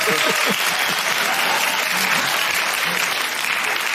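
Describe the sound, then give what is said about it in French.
A steady wash of crowd applause from a sound effect, played by pressing the wrong button instead of laughter, fills the whole stretch, dense clapping at even loudness with faint voices murmuring underneath near the start. “Bon, ben, c'est ça qui arrive quand tu pèses sur le mauvais piton. Tu as des applaudissements au lieu des rires.”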